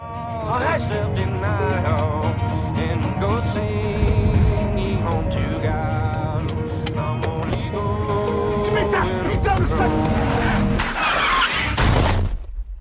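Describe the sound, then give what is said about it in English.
Loud music plays steadily from the radio of a man driving an American classic car; near the end tires screech in a sharp skid and a brief, noisy crash cuts everything off as he turns to yell at his daughter and crashes. “Finally, he snaps, turns to yell at Alexia, and crashes the car.”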